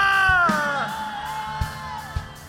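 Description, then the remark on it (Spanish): A loud, drawn-out war cry from an audience member: one voice yelling in a long wavering shout that slides downward in pitch, with a few dull low thumps beneath it and a faint crowd in the background. “Alguien va a dar un grito de guerra.”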